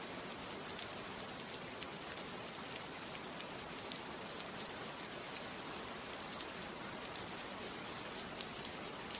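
Steady rain pours down continuously, a dense hiss of droplets striking surfaces with faint crackling ticks throughout. It sounds even, with no voices.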